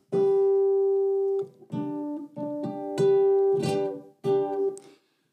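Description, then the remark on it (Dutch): A clean electric guitar, played through a compressor pedal with a little reverb built into the small amplifier, plays a short phrase of sustained single notes: one long held tone followed by several evenly loud plucked notes that ring out smoothly with little volume drop. “En je hoort in feite niet, niet zo heel veel verschil, maar wat deze compressor doet is de snaren die je wat zachter aanslaat, die laat hij harder klinken en dat wat je hard aanslaat, dat laat die wat zachter klinken.”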